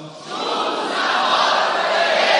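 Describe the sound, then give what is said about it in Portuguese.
An audience with raised hands shouts together in a loud, sustained roar of many voices, swelling quickly after a brief quieter start and holding at full strength throughout. “Com as mãos levantadas e gritando agora.”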